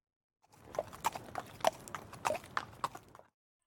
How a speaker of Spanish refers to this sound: Este hombre monta a caballo.